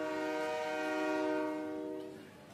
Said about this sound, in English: He is very far from the station, and the train's whistle is already announcing its departure.